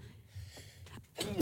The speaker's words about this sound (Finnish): terveydeksi taas jälleen. Hän Eikä tämän... flunssa en mä tiedä, mutta sä oot kaksi kertaa jo tänä niin. aikana siis niin kuin aivastanut.